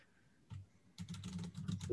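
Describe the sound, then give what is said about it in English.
Rapid clacking of computer keys as someone types a Google search, a brief burst followed by a denser run of keystrokes, fairly quiet, with no talking over it. “I didn't even finish typing.”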